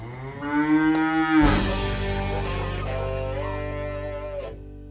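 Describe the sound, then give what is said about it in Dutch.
Dairy cows on a farm of 140 milking cows and young stock moo loudly, one long drawn-out low call swelling into another that fills the whole moment, with no voices present. “Ja, jullie bedrijf bestaat uit 140 melkkoeien en natuurlijk het nodige jongvee.”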